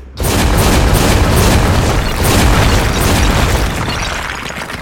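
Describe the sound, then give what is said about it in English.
A loud explosion roars for several seconds, with repeated sharp revolver shots punching through a dense rumbling blast as a mechanical machine blows apart, sending green fluid, sparking servos and smoking limbs flying. No voices are heard. “Putting all I had into the shots, the mechanical horror show blew apart.”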